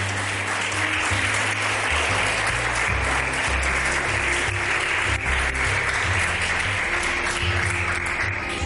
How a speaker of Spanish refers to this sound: Aplaudan porque hay un rusito que ya comenzó a aplaudir aquí.